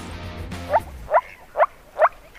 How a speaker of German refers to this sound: Ich habe hier mal ein paar Beispiele. Das ist der Paarungsruf vom Moorfrosch.